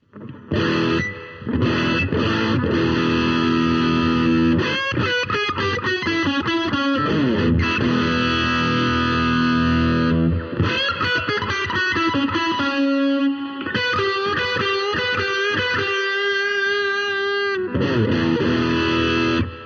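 An electric guitar plays a sustained, slightly distorted phrase of chords and single notes, wet with spring reverb from a reverb pedal only, the mixing console's reverb switched off, letting each note ring and splash. It is steady, with no talking.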